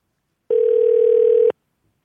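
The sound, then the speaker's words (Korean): A single one-second telephone tone sounds as a call is placed to a listener in Yongin: a steady, fairly loud electronic hum that starts and stops abruptly, followed by silence, with no voices. “자, 전화 한번 걸어볼까요?”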